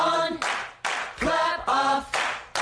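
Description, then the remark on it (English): Hand claps come in sharp bursts, alternating with short tuneful vocal phrases of the jingle for the Clapper, a clap-activated switch, in a bouncy rhythm, with clap clusters repeating about every second. “clap on, clap off the clapper.”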